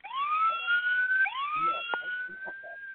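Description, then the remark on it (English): A police horn siren sound effect whoops loudly, two rising sweeps in quick succession, each climbing steeply then holding a high wail before the next one starts. “I'll let you know why the police horn sound effect”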